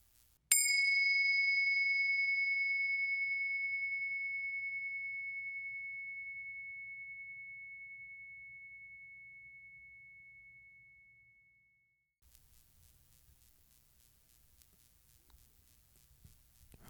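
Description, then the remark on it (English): A single meditation bell is struck once and rings out clearly, its pure tone slowly fading over about eleven seconds before quiet background noise and faint rustling follow. “First, let's settle in together with the sound of the bells.”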